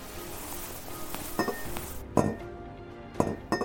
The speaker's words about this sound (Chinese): 他兴奋地拿出一根短铁丝，接着他仔细地用这根铁丝打开玻璃柜的锁。